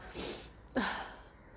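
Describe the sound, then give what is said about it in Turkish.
Two breathy, wet nasal sounds from a runny nose: a long airy intake followed by a sharper, snorting sniff, fairly quiet, with no talking. “Benim de burnum bile akıyor şu anda. Kusura bakmayın bu garip garip sesler için.”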